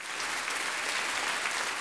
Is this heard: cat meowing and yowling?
no